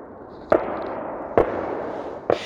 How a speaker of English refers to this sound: Just last week, the Ukrainian military says Russia launched a rocket attack aimed at northern towns and villages in Ukraine. Rockets launched from Belarusian soil flying right over small villages like this one.